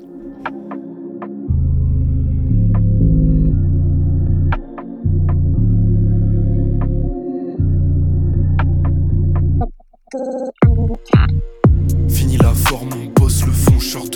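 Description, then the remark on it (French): An instrumental music intro from a single plays loudly, with deep, throbbing bass chords and sparse ticking percussion, then breaks into a busier section of sharp, punchy hits near the end. No one speaks. “On écoute euh, un extrait, enfin même pas un extrait, on écoute l'un d'entre eux qui s'appelle …”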